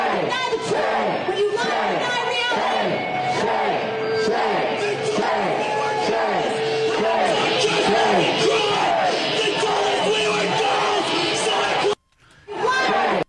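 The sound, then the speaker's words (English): A dense, loud crowd of protesters shouts and yells continuously at a group getting off a bus and walking up a gauntlet into a building; after a brief cutoff near the end, a single man lets out a harsh, drawn-out scream. “that guy screaming at the end is it's, scary.”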